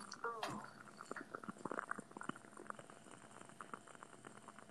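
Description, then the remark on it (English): A wooden wick candle crackles with quiet, irregular pops and snaps that continue steadily throughout, burning in a bedroom late at night. A brief voiced exclamation sounds near the start. “Okay, I have FOMO in the ASMR department, so I'm gonna contribute. Okay, I with my it. with my wooden wick candle.”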